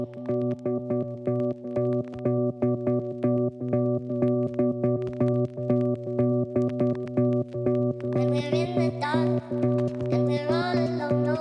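An electronic music track plays: steady, buzzy synth chords pulse in an even rhythm, and a higher singing voice joins over them near the end.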